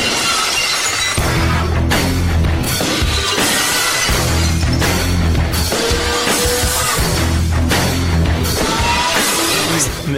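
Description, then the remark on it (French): Loud, driving rock music plays as a professional wrestler's entrance theme for the whole stretch. Bright glass-shattering crashes burst out several times over the pounding beat. “Ben là, écoutons la team song.”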